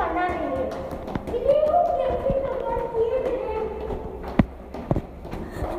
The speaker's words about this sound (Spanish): Vamos a ver las escaleras. Vamos por las escaleras. Sí. Estamos corriendo